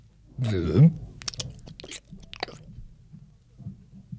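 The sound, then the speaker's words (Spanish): A voice imitates a big fish swallowing a toy soldier with a low, throaty gulp, then a run of wet smacking, crunching and chewing sounds, fairly loud at first before fading into softer mouth noises. “Y en eso Vino un pez grandotote y se tragó al soldadito.”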